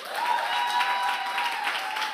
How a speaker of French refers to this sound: Est-ce qu'on peut les applaudir très fort